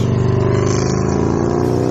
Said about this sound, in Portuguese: Mas como vocês podem ter notado, uma moto passou bem na hora que ela falou e vocês não conseguiram ouvir a sua voz.